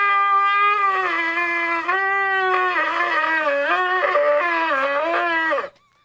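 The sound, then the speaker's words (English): A single long shofar tekiah blast, loud and unbroken for about five seconds, its pitch stepping and wavering between several different notes before it cuts off abruptly. “Okay, we, we got a lot of different notes notes in there.”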